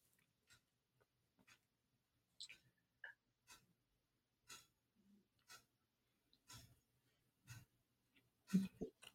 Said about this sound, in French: Et c'est marrant parce que j'entendais euh, le tic-tac de ton horloge